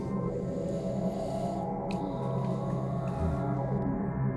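A steady wash of static-like noise hums from loudspeakers, dense and unbroken, with low droning tones layered underneath and a few faint crackles. No one speaks.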